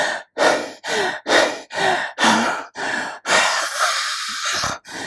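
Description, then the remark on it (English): Rapid, heavy panting from a person: about seven quick, breathy gasps in a steady rhythm, ending in a longer, ragged exhale as if thoroughly out of breath. “he ran and ran till he was out of breath and and only stopped when he was about to faint.”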